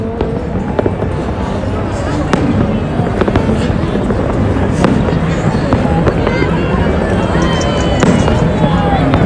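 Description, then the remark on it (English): Fireworks crackle and pop repeatedly amid a dense, noisy crowd at a New Year 2020 celebration, with sharp bursts scattered throughout over a constant roar of background chatter and commotion. “You could hear the fireworks going off.”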